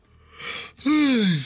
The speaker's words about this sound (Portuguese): Bocejei.